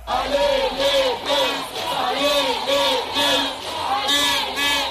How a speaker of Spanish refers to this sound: Ale, le cantan los trabajadores del hotel en el que están concentrados.